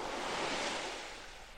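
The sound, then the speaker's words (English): Waves breaking on a beach in a steady, broad wash of surf, moderately loud, swelling briefly then easing off as the water recedes, with no voices. “There's shade and you can hear the waves breaking on the beach.”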